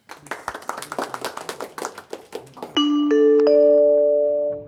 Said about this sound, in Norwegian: Han bør jo liksom få eh, applaus for å overleve det, da.